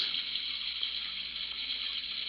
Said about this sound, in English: Look at the rain.